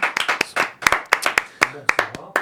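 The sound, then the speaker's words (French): Scattered applause for the first live guests, a music group, on the show Scrognieux, the group also applauding themselves, with sharp irregular claps overlapping in quick bursts, fairly loud, and a brief low murmur of voices partway through. “eux aussi sous un teneur d'applaudissements et d'auto-applaudissements.”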